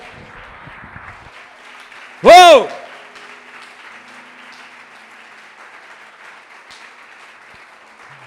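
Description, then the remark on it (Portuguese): An audience applauds steadily throughout, a dense, even wash of clapping, broken early on by one loud, high whooping shout from a voice in the crowd. “Aplauda ele bem forte.”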